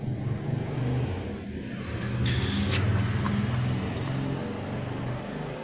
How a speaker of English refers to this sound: Try sleeping with the windows open. There's a lot of traffic going on.